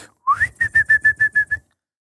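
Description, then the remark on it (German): Bird-like chirping from a 1990s household gadget: a rising whistled swoop followed by seven quick, evenly spaced high chirps, clear, with no talking. “Aber jedes, jeder Haushalt hatte das. Ja, yeah, in, in den 90ern hatte das jeder. Also dieses Vogelzwitschern da einfach.”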